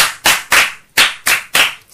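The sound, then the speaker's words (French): Classroom applause in unison: five loud, sharp claps in a steady rhythm, each with a bright crack that fades quickly, and no voices over them. “Quand les moustiques piquent là, ça donne le paludisme. Et bravo pour elle”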